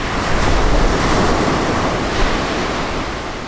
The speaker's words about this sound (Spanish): Marejada. Estado del mar cuando la superficie aparece perturbada con olas de gran tamaño y fuerza que pueden alcanzar los 4 metros de altura. Esas olas se alejan del lugar donde se originaron y se propagan rápidamente hasta la costa.